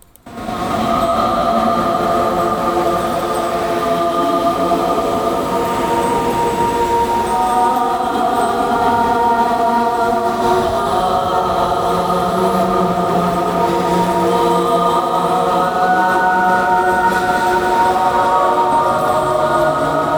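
A heavy metal track plays loud and steady throughout, a dense wall of distorted guitars droning on sustained chords with no break and no voices over it.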